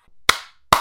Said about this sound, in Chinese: …拍手鼓掌，脸上笑着说道